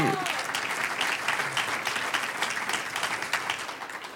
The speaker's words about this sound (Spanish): Un aplauso al Señor.